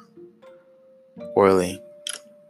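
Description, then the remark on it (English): A phone notification sounds as a steady, mid-pitched electronic tone that holds for a couple of seconds, while a person briefly speaks a word over it. “Sorry, that was my phone.”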